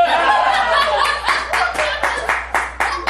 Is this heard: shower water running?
no